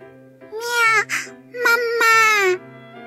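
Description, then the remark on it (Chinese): A kitten cries for its mother from a corner: high, wavering wails in two drawn-out bursts with a brief breathy gasp between them, fairly loud and with no talking. “一声哭叫从角落里传来。”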